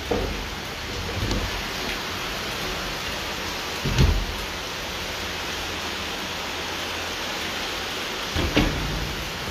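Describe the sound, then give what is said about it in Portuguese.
Steady heavy rain pours down in a dense, constant hiss, with a few low thuds or rumbles breaking through near the start, middle and end. No one speaks. “Eu fechando a tá. janela aqui, porque tá chovendo forte, né?”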